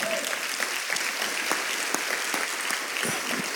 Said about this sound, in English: And our goal was to engage about 500 leaders, and we ended up with 8,000. And what it showed, yeah, that's worth clapping, right?